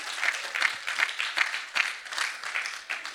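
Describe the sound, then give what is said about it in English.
An audience breaks into warm applause welcoming newcomers, a dense, steady patter of many hands clapping for about three seconds with a slight rhythmic pulse and no voices. “So let's welcome anybody that's new in the room.”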